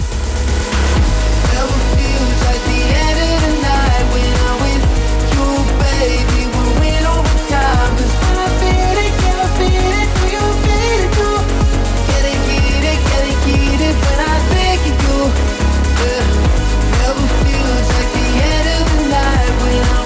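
A loud, driving electronic house track with a steady four-on-the-floor kick, heavy bass and layered synth melodies running continuously without any vocals or talking.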